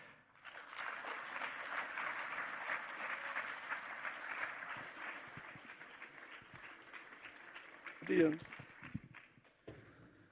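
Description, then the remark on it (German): An audience applauds an interview guest at a stage show in a dense, steady wash of clapping that holds for several seconds before thinning out, with a brief louder burst of noise near the end. “Ich würde sagen, geben wir einen Applaus für unseren Interviewgast”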